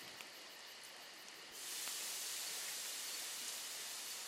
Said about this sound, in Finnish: Sammutetaan nuotio ja käydään telttaan nukkumaan.